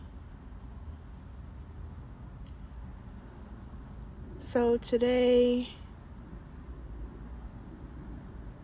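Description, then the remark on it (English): A steady low rumble of car cabin noise fills the whole recording, with a man briefly speaking over it near the middle before the quiet hum continues alone. “I'll be honest with you, I'm actually recording this in my car.”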